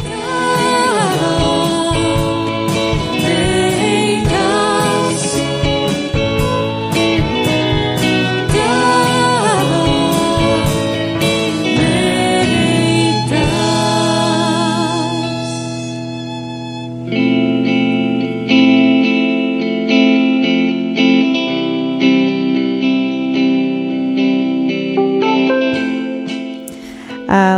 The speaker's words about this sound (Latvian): Ir pulkstenis četri, maza uh, kļūda jinglā, ko mēs noteikti, noteikti līdz nākamajai reizē arī izlabosim.